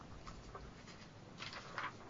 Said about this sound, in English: sorry a second, I'm just throwing away the wrong bit of paper.